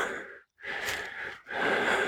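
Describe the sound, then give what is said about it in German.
Heavy, audible breathing: three loud, breathy gusts in quick succession with short pauses between, like someone catching their breath after exertion. No talking. “Kurze Schnauf Verschnaufspause.”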